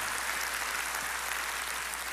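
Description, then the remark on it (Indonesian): An audience applauds together for God at a preacher's call during a sermon, a dense, steady wash of many hands clapping that holds an even, moderate level for about two seconds with no voices over it. “Mari sekali lagi tepuk tangan yang paling meriah buat Tuhan kita.”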